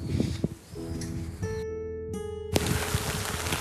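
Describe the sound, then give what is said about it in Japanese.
Steady rain hisses loudly, briefly giving way to a tonal humming drone before a sudden, heavier downpour surges back in while someone walks through it without an umbrella. No one speaks. “おおまた急に強い雨が降ってきて今もうね傘はささずにそのまま歩いてます”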